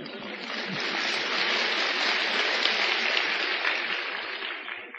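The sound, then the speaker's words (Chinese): An audience applauds in a dense, steady wash of many hands clapping, holding at an even level for about five seconds before easing off slightly at the end. “嘿，鼓掌了要要算的喽。”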